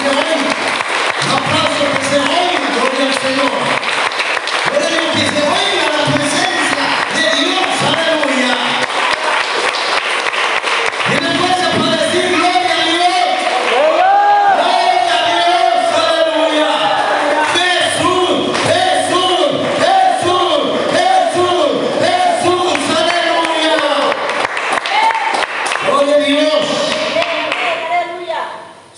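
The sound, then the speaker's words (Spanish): An audience claps and cheers loudly and steadily, dense applause mixed with shouting voices and rhythmic thumps, continuing without pause for the whole stretch. “¿Tienen fuerza para aplaudir? Gloria al Señor. Un aplauso, hermano, que se oiga.”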